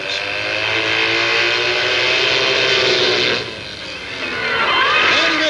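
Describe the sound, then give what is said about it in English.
Evel Knievel's Triumph motorcycle engine roars loudly and steadily as it builds speed for a roughly 90-foot jump over 15 cars in Gardena, California, dips briefly, then revs back up with a rising, whining pitch. No one speaks. “To soar through the air, airborne for about 90 feet on a normal Triumph machine. And he's set to go.”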